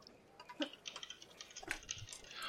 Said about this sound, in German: Aber soll ich auch würfeln? würfeln wir auch.